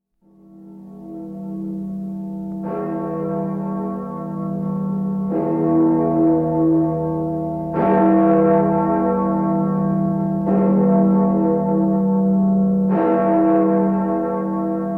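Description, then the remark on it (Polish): Large freedom bells in Berlin ring with a deep, humming drone, struck about five times at steady intervals of roughly two and a half seconds, each strike blooming over the lingering resonance. No voices. “Powiem tylko, że to są dzwony wolności z Berlina.”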